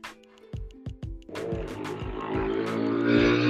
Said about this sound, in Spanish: Perdón, va pasando una moto por acá afuera que es el delirio.